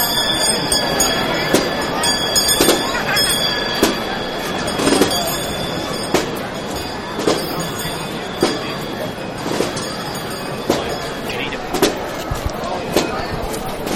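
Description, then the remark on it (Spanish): Hand bells rung by the muñidor (procession herald), announcing the arrival of the cofradía del Santísimo Cristo Yacente y Nuestra Señora de la Soledad, ring in a steady, regular rhythm, about one clang per second, with bright metallic overtones hanging between strikes over a constant murmur of background voices. “justo a ambos lados también del muñidor, que podemos escuchar en estos momentos cómo hace sonar esas campanas que anuncian la llegada de la cofradía del Santísimo Cristo Yacente y Nuestra Señora de la Soledad.”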